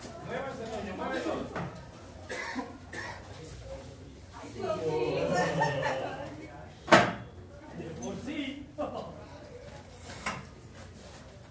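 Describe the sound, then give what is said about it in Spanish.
A door opens with a single sharp knock-like clack midway, amid scattered voices, laughter and shuffling room noise. “se abren, la puerta.”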